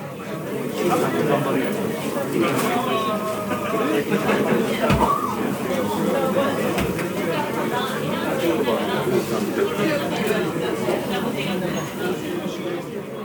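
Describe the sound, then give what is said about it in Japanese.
Ice cubes clatter and clink as glasses are filled with ice for shochu-and-soda highballs, made one after another at the drinks counter of Iseya. Sharp bursts rise now and then over a steady wash of crowd chatter in a busy, noisy place. “目の前で氷の音がガラガラしてますがこの氷がですねあの焼酎の炭酸割りその氷入れたグラスに突っ込むためのやつがこうありますそれはこう目の前でどんどん作られていくんで氷がガラガラとうるさい音を立ててます”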